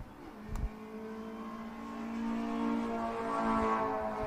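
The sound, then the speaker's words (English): A steady engine drone with strong harmonic tones holds and slowly builds in pitch and loudness, a Corvette race car that has just gotten past another car and is running at speed on a track with clean track ahead, with a brief thump near the start. “that Corvette, now that it's gotten past, it has some clean air uh, and clean track in front of them, will just start to drive away.”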